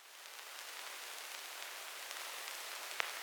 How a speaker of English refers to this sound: So, you know, again, I just don't feel like an old garage tune is finished unless it's got a bunch of tape hiss and crackle over the top. It's got to sound like it's on vinyl. Yeah, yeah, even if you have to synthesize that and add it